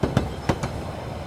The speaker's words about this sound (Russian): Ну, еще стук колес стук и колес, легкое да. баюкивание, нет, баюкивание я уже говорила. И движение поезда создает атмосферу прекрасную для сна.